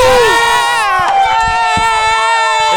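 A loud crowd cheers and whoops with high, sustained shouts, while scattered claps and bursts of noise break through underneath for a few seconds.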